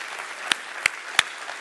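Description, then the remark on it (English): A church audience claps together in praise to God, a steady wash of many hands with three sharper, louder claps popping out at roughly even intervals. No one speaks. “If you love this church, if you love God's house, why don't you let the maker of it, why don't you let the purchaser of it give him a hand clap today and say, I love what I'm a part of right here, right now?”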